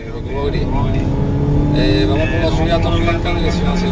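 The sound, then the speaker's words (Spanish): A stolen car with a false number plate, driven by two men during a police chase in Torreblanca, Seville, roars loudly, its engine pitch rising and shifting as it speeds along, with indistinct voices mixed in underneath throughout; filmed by the local police. “En las últimas horas, dos hombres que protagonizaron una arriesgada persecución con un coche robado que tenía placa falsa en Torreblanca.”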